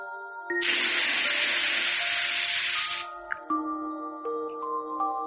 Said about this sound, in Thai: เงยหน้าขึ้น สูดหายใจเข้าเร็วๆสามสี่ครั้ง แล้วหายใจออกทางปากยาวๆ